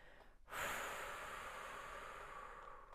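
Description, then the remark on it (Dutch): A deep breath with a lengthened exhale: after a brief quiet moment, a loud, airy rush of air begins and holds steady for over two seconds, fading only slightly. No one speaks. “En dan altijd ga ik dan een hele diepe ademhaling doen. Vooral je uitademing verlengen is heel erg belangrijk. Dat je echt zo inademt en dan”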